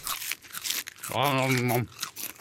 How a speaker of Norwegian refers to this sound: nå, knasker vi oss resten av utenlandssakene her.